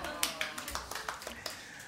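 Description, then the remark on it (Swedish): Scattered hand clapping from a small group, a quick irregular run of sharp claps at moderate volume over a low murmur of voices, as an audience is asked to laugh and clap after a joke. “Ni ska skratta och klappa lite händer.”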